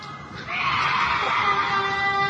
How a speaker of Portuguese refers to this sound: Ó. Uhum. Ah, não, esse lobisomem é fajuto. Isso aí não é grito de lobisomem. Ah, mas é uma. É fajuto, hein?